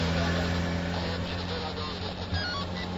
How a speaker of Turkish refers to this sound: Biz de gidiyoruz. Çalıştır arabayı canlıya.